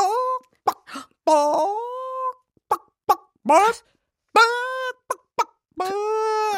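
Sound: voice imitating a chicken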